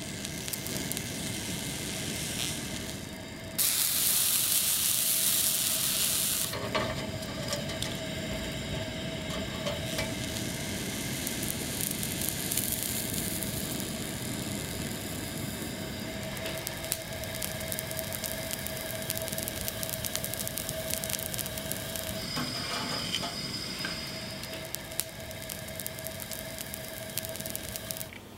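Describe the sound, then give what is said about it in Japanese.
Tatami iwashi sardine sheets sizzle and crackle in a steady, hissing roar for about half a minute, with a brighter, louder burst early on and a faint thin tone underneath. No one speaks. “今朝は畳いわしのおいしい音色”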